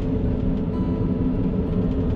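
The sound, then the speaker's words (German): The brakes of the train the speaker is riding on, heard as a steady, heavy low rumble with a faint high whine riding on top, continuous for the whole moment, with no voices. “Ähm, das ist übrigens die Bremse von unserem Zug.”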